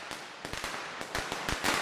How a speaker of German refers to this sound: Das Staccato, der Feuerwerkskörper.